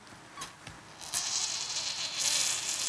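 Steady sizzling of dough fritters frying in hot oil, with a few sharp crackles early on, then the hiss swelling louder in two stages as the fritters are pressed down to make them cook faster. No one speaks.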